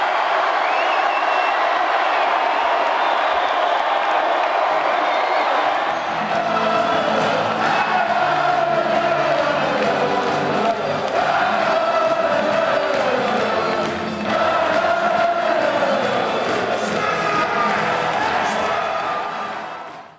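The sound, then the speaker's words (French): A huge crowd of about 3,000 spectators seated in the stands, watching a football match on a giant screen in France, cheers wildly at the final whistle: a dense, sustained roar that surges in waves for the full twenty seconds, loud with overlapping shouts and no quiet moments. “Autant vous dire qu'au coup de sifflet final, c'était de la folie furieuse.”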